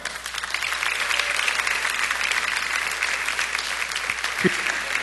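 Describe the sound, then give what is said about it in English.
A church audience in Green Bay applauds steadily throughout for a visiting guest pastor at a Sunday morning service, a dense wash of many hands clapping at an even, sustained volume with no talking over it. “Please give a hand to Pastor Keith Farrell.”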